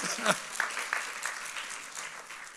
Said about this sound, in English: Let's give him an applause.